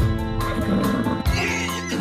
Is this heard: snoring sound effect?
no